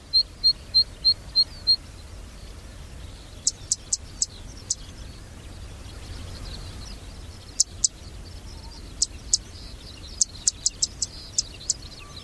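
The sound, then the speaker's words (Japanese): Sharp, high-pitched bird calls repeat in quick bursts: a steady run of clicky notes at first, then scattered chips and short series over a soft outdoor hiss. A zitting cisticola calling in Nagareyama, Chiba Prefecture, Japan, with no talking. “千葉県流山のセッカをお届けします。”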